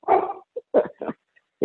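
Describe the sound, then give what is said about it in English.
A golden retriever dog barks at home several times in quick, uneven bursts, fairly loud, with short gaps between the barks and a small yip among them. “Oh, that's my dog.”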